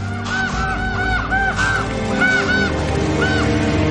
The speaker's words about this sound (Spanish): Fuera una bandada de cuervos pasa junto a una ventana.